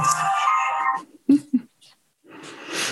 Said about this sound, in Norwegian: bare en, liten, bare en liten, telefon. En liten telefon. Ja, det er lov, det. Jeg skal å skru den av så ikke det kommer igjen.